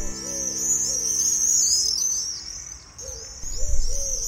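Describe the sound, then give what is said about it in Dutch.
About twenty common swifts, flying together just outside a small town garden in Zeeland, scream in a continuous, shrill, wavering chorus, joined briefly by a fainter, lower cooing tone underneath. No one speaks. “Het geluid van de zomer. De gierzwaluw.”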